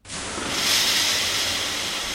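A steady burst of steam hissing in a Finnish sauna in the Privatvilla Schäfer in Fitznau am Vierwaldstättersee, on 31 October 1947 around 21:21, like water hitting hot sauna stones, rising quickly and holding as a broad, airy rush for a couple of seconds with no voices.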